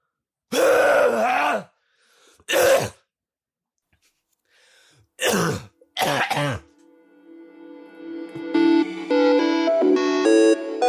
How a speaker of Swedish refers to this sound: Och alla tittarna, ni ska höra det här. En jättehård ja, host.